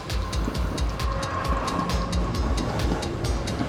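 A departing train rolls along the rails with a steady low rumble and a regular, rhythmic clatter of wheels over track joints, loud and continuous, with no voices.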